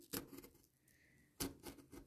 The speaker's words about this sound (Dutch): Want ik ben namelijk aan het snijden. Eh, in papier, in linnenkarton, wel te verstaan.